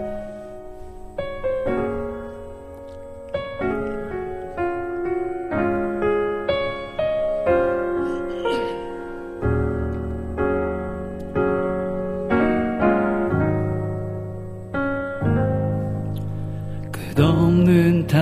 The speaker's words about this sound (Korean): 그래서 저희는 피아노 버전을 네. 이제 찬양을 하려 합니다. 아 좋습니다. 자 그러면 피아노 버전에 얹어 있는 가사에 오히려 더 집중을 할 수 있는 네, 그런 버전의